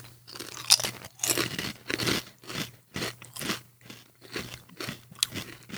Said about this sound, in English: And it's like eating a chip covered with cumin and sugar. I like it. I don't hate it.